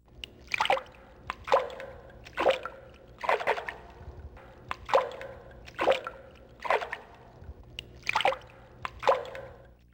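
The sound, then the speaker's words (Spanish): Water sloshes and splashes in a steady rhythm, about one burst per second, like regular strokes through water, moderately loud with no voices. “Ruido de agua.”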